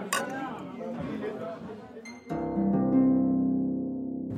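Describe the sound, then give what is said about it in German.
Glasses clink once in a bright toast right at the start, over a murmur of voices, before a steady sustained tone takes over. “Prost, Martin, echt? Prost. Prost.”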